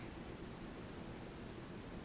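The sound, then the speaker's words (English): A faint, steady refrigerator hum fills the background, an unbroken low drone with a soft hiss on top and no other sounds or voices. “seem to hear a refrigerator in the background.”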